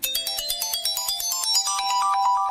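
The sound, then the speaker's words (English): A short, bright electronic video game jingle: rapid, evenly pulsing bleeps that step steadily upward in pitch, loud, with no voices. “I think that was like at the end of the emerald level or something, but if you played the the video game as much as I did then then you knew what that was from.”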